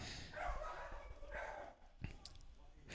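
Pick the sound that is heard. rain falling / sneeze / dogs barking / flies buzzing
dogs barking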